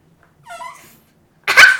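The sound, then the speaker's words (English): A dog named Looty lets out a short, high, wavering whimper, then after a brief pause gives a louder, harsher yelp-like burst. No one speaks. “I know, but you know, he makes some noises.”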